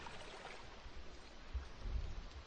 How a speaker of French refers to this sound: La pluie crépite de plus belle.